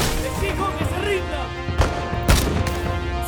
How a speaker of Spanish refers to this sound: fue encontrado a oscuras, durmiendo en una choza, y luego de una confusa ráfaga de tiros,